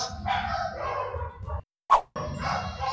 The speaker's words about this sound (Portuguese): Espera a cachorrada aí, calma.